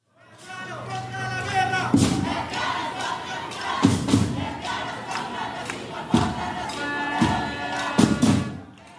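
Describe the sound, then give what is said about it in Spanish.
A crowd of more than 100 people from the LGTBI community in San José, Costa Rica, on 9 January 2018 chants in unison "lesbianas contra la guerra, lesbianas contra el capital, lesbianas contra el racismo", voices loud and steady, with heavy rhythmic thumps landing about every two seconds as the chant repeats. “Eso fue el 9 de enero del 2018 en San José, Costa Rica, y lo que oyen es un grupo de más de 100 personas de la comunidad LGTBI están cantando lesbianas contra la guerra, lesbianas contra el capital, lesbianas contra el racismo.”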